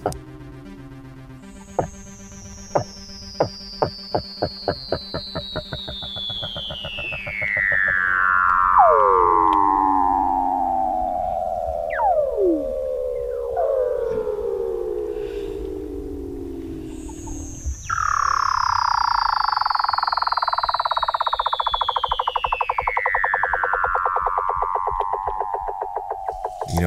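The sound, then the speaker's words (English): Weddell seal calls under ice: two long, eerie whistles that glide steadily from high to low pitch over many seconds, with rapid ticking pulses and brief chirps between them. No one speaks. “It's Weddell seals. Oh wow! Under the ice.”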